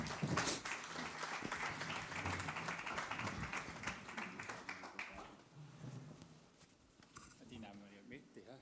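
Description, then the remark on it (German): Audience applause for two men invited onto the stage to talk about how they read the Bible: a dense, steady crackle of many hands clapping for about five seconds, then thinning out and fading as voices begin talking over the last few moments. “Genau, ihr dürft klatschen.”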